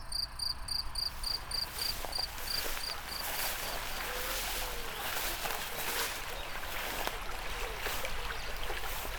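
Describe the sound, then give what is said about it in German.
A cricket chirps in quick, regular pulses outdoors in sunny weather, clear at first and then fading after a few seconds, over a steady wash of rushing, stream-like background noise. “Grille, die Sonne strahlt.”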